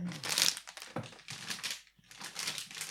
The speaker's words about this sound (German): Was knistert denn Ja, das so? ist ja deine Tüte, weil du die aufgemacht hast ah. und dann probiert das zuzumachen.